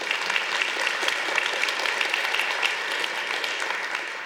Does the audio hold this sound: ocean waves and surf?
no